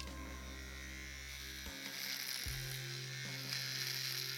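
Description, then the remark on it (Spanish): An electric shaver buzzes steadily as it removes hair from a person's hands, its motor pitch shifting abruptly a few times as it presses against skin and hair, with no voices over it. “Y lo que escucha público, se está este sujeto depilando las manos.”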